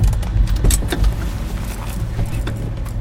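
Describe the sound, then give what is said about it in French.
Someone gets out of a car on Stanford Street: a low engine rumble underneath, with several sharp clicks and clunks of a door and a brief jangle of keys. “vient de sortir de la voiture et les hommes du SWAT vont sécuriser le périmètre.”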